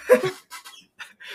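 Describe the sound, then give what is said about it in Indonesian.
The speaker's chair creaks and squeaks in a few short, uneven bursts, the first one loudest, with brief quiet gaps between and no one talking. “eh btw sorry dari tadi suara kursi gue keringat keringuk gitu”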